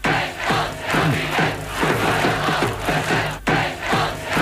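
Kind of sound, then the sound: crowd, protest crowd shouting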